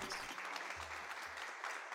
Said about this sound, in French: alors que les corps viennent de s'assagir, que la respiration a repris son rythme apaisé, que le son des derniers applaudissements s'amenuise.